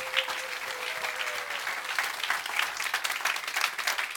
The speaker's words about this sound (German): Wollen wir Sie begrüßen jetzt? Und einen kräftigen Applaus. Super, dass ihr dabei seid.